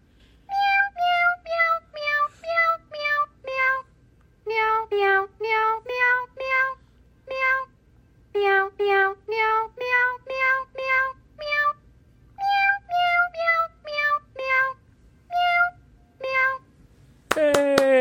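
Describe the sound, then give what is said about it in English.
A toy cat piano plays a Christmas tune entirely in short, loud meow notes that rise and fall in pitch, grouped into rhythmic phrases with brief pauses, with no talking over it. “yeah, I I have this uh, a cat piano.”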